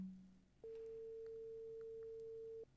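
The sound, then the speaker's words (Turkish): A single steady ringback tone from a phone call sounds for about two seconds, a flat pure hum at even volume, preceded by a brief low tone and quiet line noise. “Evet çalıyor. Şimdi açacak diye düşünüyorum.”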